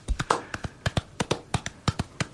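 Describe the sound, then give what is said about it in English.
Hands tap out a steady galloping rhythm, about a dozen crisp slaps in quick pairs that mimic horse hooves, given as a round of applause after a reading introducing the board game Paladins of the West Kingdom, with no talking over them. “Yes, thank you very much for that horse slash round of applause for my excellent reading”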